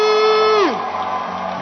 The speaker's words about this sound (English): Can I feel your excitement? With a hand clap, with a jump, with a scream as we welcome one more time to this pulpit.